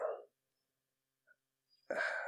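Dogs bark in two sharp bursts, one right at the start and a louder, longer one at the end, with near silence in between.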